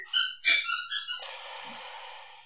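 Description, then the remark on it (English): A dog plays with a squeaky toy, squeezing it in quick succession: about four sharp, high-pitched squeaks, followed by a soft rustling hiss as the sound fades out. No one speaks. “Uh, but now is not a good time for her to play with squeaky toys.”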